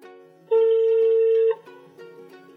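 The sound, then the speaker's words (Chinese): A telephone ringback tone while calling the speaker's parents: one loud, steady, mid-pitched beep lasting about a second, followed by a faint, lingering hum with no voices. “谁要接电话？”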